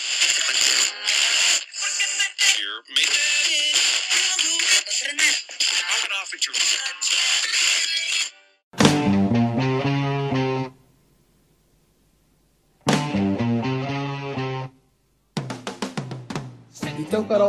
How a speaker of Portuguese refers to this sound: Então... Manda a vinheta aí